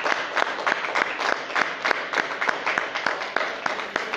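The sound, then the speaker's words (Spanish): An audience applauding the Lord after a prayer, with dense overlapping claps forming a steady, lively rhythm of sharp bright hits throughout, fairly loud and sustained with no talking. “Le damos un aplauso, Señor.”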